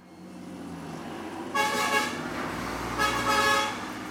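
Loud car horns blare over a steady rumble of road traffic on a busy street in northern Sri Lanka on a rainy morning, where about a dozen Tamil mothers and wives are demonstrating. One long honk starts midway and a second burst follows shortly after, their bright harmonic tones standing out above the engine noise.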